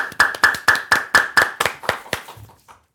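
Applause as a steady, rhythmic run of about eleven sharp claps, evenly spaced and gradually fading out, with a faint ringing tone under the first several claps and no voices.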